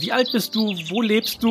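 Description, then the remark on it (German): Small birds chirp faintly in the background on a balcony in Cologne while a person talks in the foreground, the high twittering calls slipping through between and under the words. “Oh, man hört Vögelchen im Hintergrund.”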